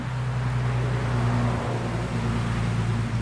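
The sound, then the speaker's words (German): A steady, loud roar of road noise with a low droning engine hum running underneath, traffic in the Great Smoky Mountains national park sounding like a busy country road, continuous throughout with no voices. “Selbst wenn wenig los ist, gleicht der Sound der Great Smoky Mountains einer gut befahrenen Landstraße.”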